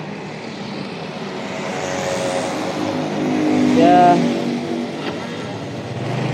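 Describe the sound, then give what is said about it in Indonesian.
A steady engine drone and road noise from a motorcycle riding through city traffic in Jakarta, recorded from on the motorcycle on the way home from work, swelling as the engine revs midway. A man speaks briefly over the rumble. “Jadi so sorry banget kalau misalkan kalian akan dengar suara-suara motor suara-suara juga pun kita kota Jakarta nanti kalian akan dengar sengaja gue buat podcast ini di atas motor”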